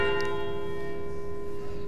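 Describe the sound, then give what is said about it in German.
A church bell rings with a sustained, resonant tone, its harmonics hanging steadily throughout the short moment, moderately loud, with no voices present. “Die Glocken. Die Glocken.”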